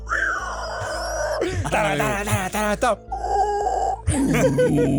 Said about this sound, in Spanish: Eso sonó como un pinche alien o algo así, güey. No estés eructando, por favor.